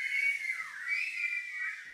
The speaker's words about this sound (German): Auf einem Rockkonzert ist der Pfiff mit zwei Fingern Ausdruck der Begeisterung. Diese positive Bedeutung ist aus Amerika importiert. Bei uns stand der Pfiff lange für Empörung.